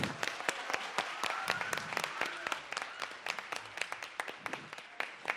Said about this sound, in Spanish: Chicos, gracias. La verdad, aplauso para los caballeros.